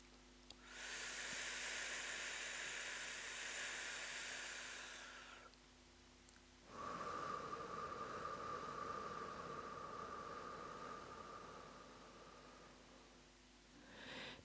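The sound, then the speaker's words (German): Deep, drawn-out breaths through the mouth in a breathing exercise demonstration, sucking air in to fill the belly like a balloon: a long airy inhale of about five seconds, a short pause, then a second steady breath with a faint whistling tone. No one speaks. “Einfach richtig mit dem Mund die Luft einsaugen.”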